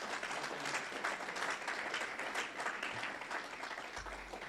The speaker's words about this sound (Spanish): ¿Por qué no le dan un aplauso al Señor para que despierte el que está al lado?